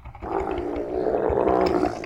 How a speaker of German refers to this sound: Kamel.